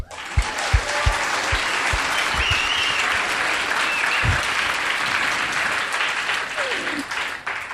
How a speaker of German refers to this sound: Ja, komm, wir geben ihm mal Applaus.